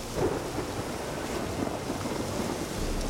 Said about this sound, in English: So this is a hut. Obviously, still raining, as you can hear.